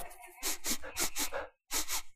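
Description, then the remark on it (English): A person sniffs loudly and theatrically in a mock 'sin sniffing' act, a quick series of sharp, hissing inhales, about six in a row, then a short pause before two more. No speech. “Want me to go back into sin sniffing mode again for you?”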